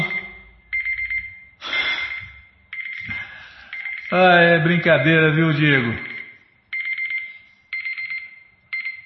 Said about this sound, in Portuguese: você tá macumunada com esse, esse relógio aí, com esse telefone, com é, esse cronômetro. Ah, temporizador, tá bom. A hora que eu ia falar aqui, você cortou.